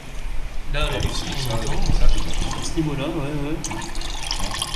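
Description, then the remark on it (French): Distilled spirit runs from a still while the heads are being separated, about 30 litres expected: a steady, gurgling trickle, a continuous wet splashing that holds at moderate loudness while voices speak over it. “30 litres alors là, on est en direct devant les machines et on entend, on entend couler.”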